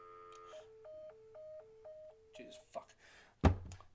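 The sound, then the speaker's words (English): Electronic telephone tones alternate between two pitches in a steady, repeating pattern for a few seconds after a phone is hung up on a call-in line, then break off into a couple of clicks and a loud thunk. “Hang up the phone.”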